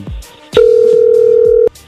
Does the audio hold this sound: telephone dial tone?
yes